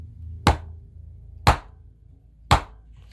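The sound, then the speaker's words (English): A gavel bangs three times to start the show, at an even, roughly one-second pace, each strike a sharp, loud wooden knock that cuts off quickly, with a low hum in the background between blows. “Banging the gavel three times, like I usually do.”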